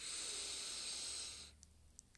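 A single steady inhale through one nostril, with the other side of the nose covered, as a breathing exercise: an airy hiss lasting about a second and a half, then near silence with a few faint clicks.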